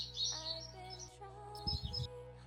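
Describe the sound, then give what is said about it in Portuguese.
Small birds chirp and twitter in quick, high-pitched bursts over a steady tonal background, with a few soft low thumps near the end. “Eu gostei muito desse sonho dos passarinhos aí fazendo.”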